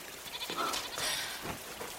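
A goat bleats in a few quavering, wavering calls, fairly loud against a steady background hiss, with no talking.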